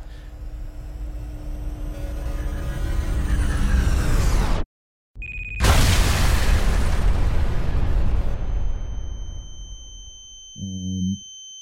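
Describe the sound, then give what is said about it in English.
A loud explosion of an IED buried too deep in the ground, near the town of Huseba, bursts in after a moment of silence, blowing up the earth, its heavy rumble slowly fading over several seconds, with steady noise beforehand and a brief tonal hum at the end. “a explosion goes off.”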